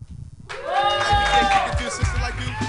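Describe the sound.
An audience at a comedy show breaks into applause for a new comedian after a brief quiet moment, with cheering and whooping voices rising over the clapping and holding steady and loud to the end.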